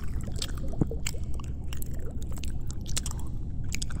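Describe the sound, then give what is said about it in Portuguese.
Wet, squishy chewing and crunching bites of a shark eating fish, steady for several seconds, with a faint watery slosh underneath. “É que os tubarões adoram mastigar porções maiores de peixes já crescidos e gordinhos.”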